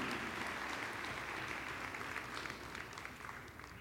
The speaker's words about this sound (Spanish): Amén. Dar un aplauso al Señor, iglesia.